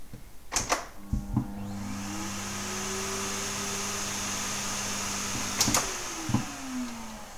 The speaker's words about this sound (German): Auch der Staubsauger hat schon die Oktave hinbekommen